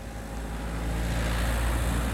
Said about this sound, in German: Inspektor, schauen Sie, das Auto.